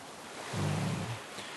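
A soft wash of surf with a low rumbling swell that rises and fades in the middle, as a wave rolls in against a steady hiss of water. No one speaks.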